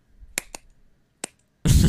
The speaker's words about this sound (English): Um, clap. you're, you're, you're, for me, your claps are only catching like a couple of them, so it's like